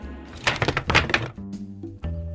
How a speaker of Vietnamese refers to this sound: Nghe tiếng ghế đổ, nhân viên phục vụ đang nói chuyện với đầu bếp trong bếp, vội chạy ra để định đỡ cậu thanh niên.